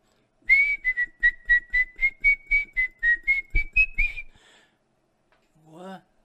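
A person whistles the folk song Boi Barroso in a quick run of about a dozen short, evenly paced notes, clear, followed after a pause by a brief vocal sound.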